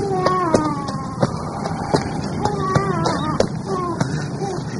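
A chubby baby, sucking its finger, cries in repeated, wavering wails, loud, over a steady low rumble with occasional sharp clicks.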